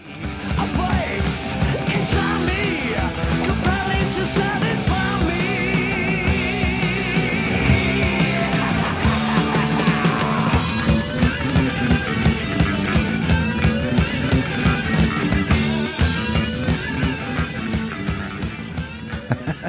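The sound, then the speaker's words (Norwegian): A loud, dense rock song moves through a transition: driving drums and guitars play throughout, and about halfway a bright sustained line drops out as the band shifts into a new section. “For … har jo en del overganger, blant annet den her.”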